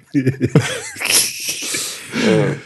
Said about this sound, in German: Einfach mal schön lange ins Mikrofon gähnen.